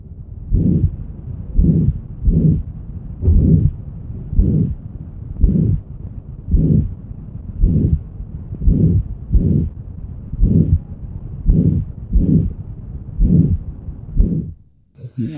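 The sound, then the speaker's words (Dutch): A heart murmur from a patient with aortic stenosis and mitral insufficiency, heard through a stethoscope: low, regular heartbeats about once a second, each smeared into a rough, whooshing sound, continuing steadily for the whole recording with no talking. “Dus een patiënt met een aortestenose en een MI.”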